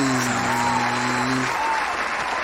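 Dense, steady applause of many hands clapping fills the whole stretch at a loud, even level, with a brief sustained tonal hum underneath during the first half.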